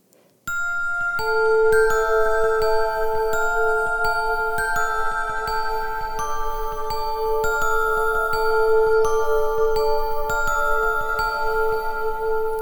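A whistled melody in western-film style, long sustained notes shifting pitch slowly over a steady, ticking rhythmic backing, with no voices.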